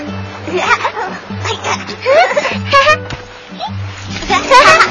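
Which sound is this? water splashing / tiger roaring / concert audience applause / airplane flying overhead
water splashing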